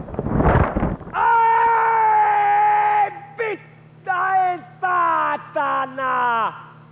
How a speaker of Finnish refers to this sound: Kun pääsen portaikossa ensimmäiseen kerrokseen, kuuluu yläkerrasta toisesta kerroksesta armoton huuto ja karjuminen.